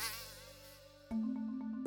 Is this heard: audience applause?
no